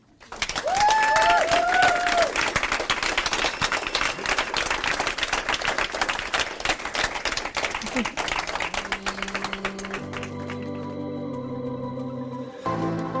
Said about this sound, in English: And please join me in one last applause for the three of them.